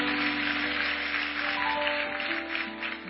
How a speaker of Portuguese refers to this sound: Aplauda ele bem forte, que essa palavra se cumpra na sua vida.